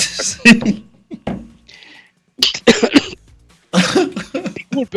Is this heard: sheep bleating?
no